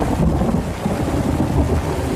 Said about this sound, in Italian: Allora, abbiamo a disposizione diversi tool per mixare i suoni che ci piacciono, quindi tipo la pioggia, i tuoni il vento